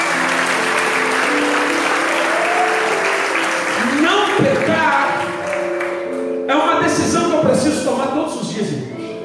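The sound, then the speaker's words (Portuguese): A church audience bursts into sustained applause for the Lord during a sermon, dense steady clapping filling the space, with voices calling out and cheering over it as the clapping swells midway and continues loudly. “Dá um aplauso ao Senhor, porque ele é”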